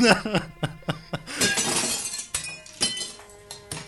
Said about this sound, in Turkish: şişelerden birini kırınca öbürü de kırıldı usta. Rafta hiç şişe kalmadı.